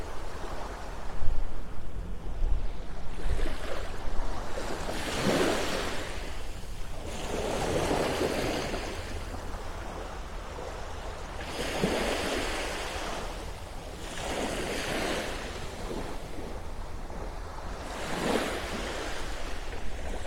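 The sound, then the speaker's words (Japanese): Gentle, calm morning ocean waves wash onto the shore at Hayama, Kanagawa Prefecture, Japan, in slow, steady swells, each rush of surf rising and fading every few seconds against a soft constant hiss, with no voices. “葉山から朝の波音3分”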